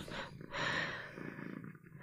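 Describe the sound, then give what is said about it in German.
A domestic cat purring, a steady rumbling drone with a soft rhythmic pulse that continues throughout, fairly quiet and with no talking over it. “Sorry, ich bin hier gerade ganz gechillt von meiner Katze.”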